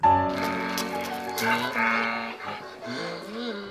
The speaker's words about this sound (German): Ja, das ist wieder der Eselsklang.